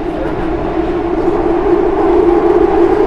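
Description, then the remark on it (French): A subway train rides along the rails with a steady, loud rumble and droning hum, swelling slightly toward the end, with no voices breaking through the continuous noise. “C'est pratiquement impossible de dessiner un métro c'est vrai. Même, enregistrer comme on fait là, ça me gêne un peu.”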